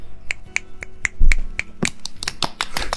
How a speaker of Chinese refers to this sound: 掌声。